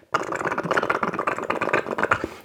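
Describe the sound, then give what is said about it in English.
A voice imitates a gerbil's exercise wheel spinning in its cage at three in the morning: a loud, rapid, rattling whir, held steadily for about two seconds with a fast fluttering rhythm, alone. “It's got a wheel in its cage, and at three o'clock in the morning, it's going”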